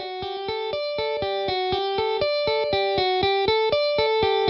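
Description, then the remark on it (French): A clean electric guitar, without a delay effect, plays a quick, steady riff of plucked notes, each stopping crisply with no echoes trailing after. Moderately loud, and no voices. “Voici le son de guitare sans l'effet de délai.”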